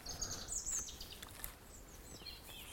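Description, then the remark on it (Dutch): A dense chorus of many birds chirping at once, high-pitched tweets and trills overlapping continuously, fairly quiet over a low rumbling background with no talking. “Zo, veel vogels hier in één keer.”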